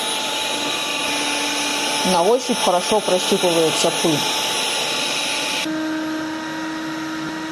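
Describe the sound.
A steady, loud whirring motor hum with a high whine runs throughout, shifting pitch slightly near the end, as a HOBOT 298 robotic window cleaner works on a dirty balcony glass pane unwashed for about a year. A man speaks briefly over it.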